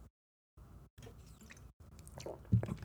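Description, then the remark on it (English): Someone takes a trial sip of a sugary, dream-flavored drink, with soft wet mouth and lip sounds broken by brief pauses, ending in a louder gulp or swallow. No one speaks. “So yeah, you're gonna you know do a, a trial sip sure.”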